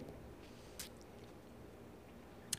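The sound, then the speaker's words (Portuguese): A quiet sip of beer with faint wet mouth sounds, a brief slurp near the start and a small click at the end, no talking. “Dá seu golinho na cerveja, vou no meu também.”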